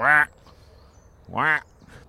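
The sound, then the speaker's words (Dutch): Two loud, harsh croaking calls from grey herons breeding in a city, each a short rasping squawk about a second apart, with a faint background hum between them. “En, het is eigenlijk wel bijzonder, want het zijn best wel een beetje oerbeesten, die blauwe reigers. En, en die broeden hier gewoon eigenlijk gewoon in de stad.”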